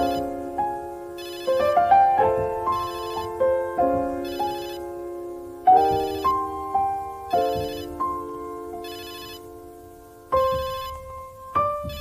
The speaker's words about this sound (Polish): No i Maciek nie odebrał telefonu.